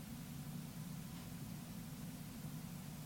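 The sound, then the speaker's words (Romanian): Faint, steady wind rumble recorded on Mars by the Perseverance rover's onboard microphones, a low hollow whoosh with a hiss above it that holds an even level throughout, with no voices or other sounds. “Și așa se aude vântul. Vântul de pe Marte.”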